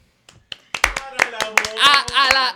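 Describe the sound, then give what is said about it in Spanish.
Several sharp hand claps in a loose, uneven rhythm, fairly loud, with a voice vocalizing over and between them, given as applause for the character Sansa Stark. “Pues aquí, ya que estamos hablando, yo quiero darle un aplauso”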